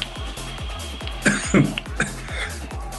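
A coughing fit after choking: a few harsh coughs burst out in quick succession over a steady rhythmic thumping in the background.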